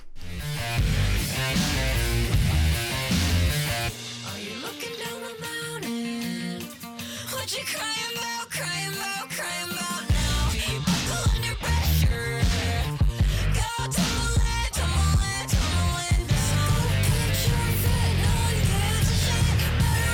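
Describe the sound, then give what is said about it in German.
A recorded pop-rock song plays loud and full, with driving drums, guitars and vocals; the bass drops out briefly partway through before the full band crashes back in. “ich habe den Song … von … mitgebracht”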